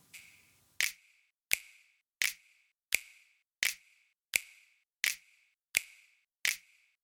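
Nine crisp finger snaps in a steady, even rhythm in a compressed music mix, each a sharp bright click followed by a short fading tail, with no talking in between.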